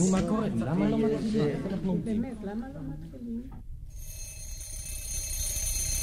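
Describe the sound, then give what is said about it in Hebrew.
A voice talks for several seconds, then a steady, bright electronic ringing like an alarm clock sounds continuously until the end, fairly loud. “כמו שעון.”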